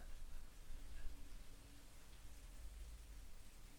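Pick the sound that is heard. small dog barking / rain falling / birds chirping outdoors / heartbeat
rain falling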